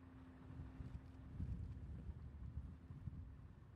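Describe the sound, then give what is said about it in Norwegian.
Very strong wind roars and buffets the microphone in a continuous low rumble during the large fire in Lærdal, Norway, in January 2014, with a faint steady hum underneath and no voices. The gusts surge slightly louder midway through. “Det du hører, er vinden. Det er en enormt sterk vind, og du ser bare at globetene eh, reiser med vinden nedover eh, mot eh, eh, mot nederst på høyre, da.”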